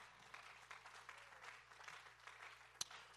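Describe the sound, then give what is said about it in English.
An audience claps their hands in praise of the Lord, a steady, dense wash of applause from many people lasting several seconds, with one sharper, louder clap near the end over a faint low hum. “Can we give the Lord a hand clap of praise tonight?”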